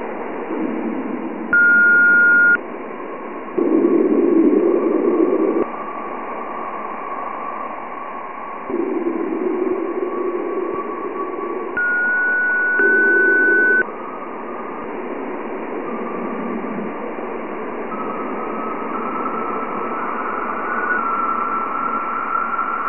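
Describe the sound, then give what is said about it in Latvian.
Radio emissions from Jupiter rendered as sound: a steady, muffled static hiss with recurring louder surging bursts and a few thin, high whistling tones, continuous for the whole stretch with no voices. “Lūk, piemēram, radiosignāli no Jupitera.”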